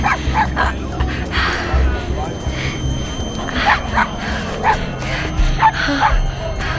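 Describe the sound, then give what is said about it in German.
A dog barks and yips in quick, repeated bursts, sharp high yelps recurring throughout over a noisy, rumbling background with voices mixed in. “Passen Sie doch auf mit dem Hund.”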